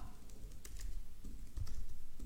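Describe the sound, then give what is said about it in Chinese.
Keys clatter in an uneven rhythm of soft clicks, someone typing steadily on a computer keyboard, typing out an important sentence to share with an audience, with no voices, the taps quiet but distinct. “把握当下的确定性，一定是非常重要的话，我才会专门打字出来给大家。”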